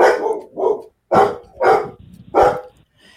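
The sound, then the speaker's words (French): Several loud dog barks in an irregular series, about five sharp woofs spaced unevenly over a few seconds, with no talking; the speaker's own dogs, which cannot stand cats, as a small ginger cat passes through the garden. “C'est mes chiens. Ils supportent pas les chats.”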